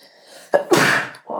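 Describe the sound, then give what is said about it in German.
A single loud sneeze: a short sharp intake bursts into a broad noisy explosion lasting about half a second, followed by a brief breathy sound. “Gesundheit. Dankeschön, sorry.”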